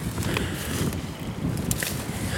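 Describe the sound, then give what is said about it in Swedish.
Wind blowing steadily outdoors through rowan trees in windy, partly cloudy weather, a broad rushing hiss through the foliage over a low, buffeting rumble, with small swells in strength and no voices. “Nu kommer vinden här igen.”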